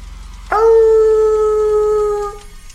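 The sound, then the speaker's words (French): A single long, loud howl rings out, holding a steady wolf-like pitch for about two seconds before cutting off, a spooky werewolf sound effect with no voices around it. “Un loup-garou. A werewolf.”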